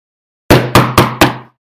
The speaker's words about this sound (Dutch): Zo klopte Max op de grote houten deur van het hoofdkwartier van de bende van Sitaki. Er gebeurde niks. Zo klopte Max nog een keer.